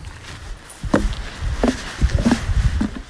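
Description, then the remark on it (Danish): Footsteps thud across a small wooden boardwalk in a wetland at Svendstrup at an unhurried walking pace, each step giving a hollow knock, moderately loud over faint outdoor background noise. “Ja, som man kan høre, så går vi på sådan en lille fin træsti her.”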